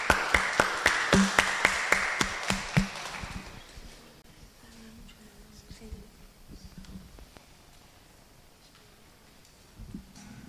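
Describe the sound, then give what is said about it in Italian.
A burst of audience applause for a speaker, with sharp, evenly spaced claps standing out for about three seconds, then quickly dying down to a quiet murmur and faint voices. “Un bel applauso”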